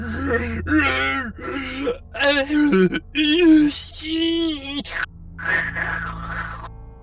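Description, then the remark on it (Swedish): A creature wails in a string of drawn-out, pitch-bending cries that rise and fall like a child's scream, fairly loud and close, followed by a rougher, breathy moan. “Det låter nästan som någon form av så här barnskrik emellanåt.”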